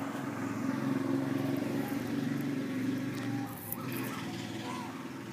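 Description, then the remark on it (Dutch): A moped engine drones loudly and steadily, its buzzing hum holding for several seconds with a brief dip before carrying on, over faint street background. “Uh, er zijn ook brommertjes en kraaien.”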